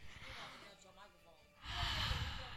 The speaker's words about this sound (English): Don't quit breathing on my damn microphone like that, putting all your hot breath on it and shit.